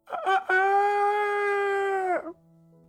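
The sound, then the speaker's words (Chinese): A rooster crows loudly, with a few quick rising notes followed by one long, sustained, bright call that holds steady before breaking off abruptly. No one speaks over it. “是公鸡打鸣儿的声音。”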